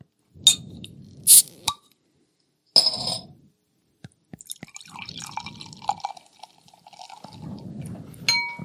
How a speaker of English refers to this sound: So now I'm going to open a bottle of beer with absolutely no label on it whatsoever.